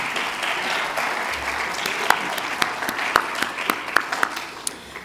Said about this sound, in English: Let's give all of our candidates a hand one more time.